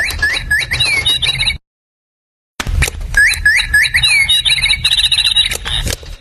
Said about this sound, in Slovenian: Poslušate zvoke okolice, soundscape.